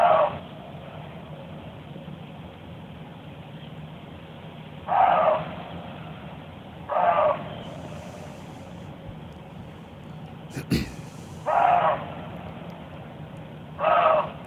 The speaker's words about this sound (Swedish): är alltså ett rådjur som som skäller. Det är på något vis, det, det är lite lägre i, ja. i, i halsen på något vis. Mm, lägre och lite grötigare och myndigare ja. än rävens hesa skall.